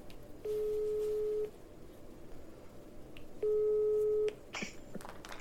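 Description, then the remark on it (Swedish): Two long, steady telephone ringing tones of an outgoing call, each about a second, separated by a pause, sounding over a faint line hiss, followed by a brief click as the call connects. “Så nu ringer vi upp”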